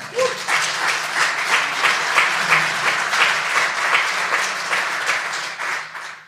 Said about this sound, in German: Lass uns mal einen Applaus geben, komm schon.